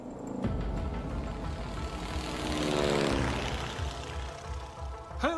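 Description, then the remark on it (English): A propeller plane's engine drones loudly and steadily, its pitch sweeping as the aircraft passes while touching down in a small crop field just outside Bariloche, with a rushing, rumbling texture throughout and no voices. “touched down in a small crop field just outside the centre of Bariloche.”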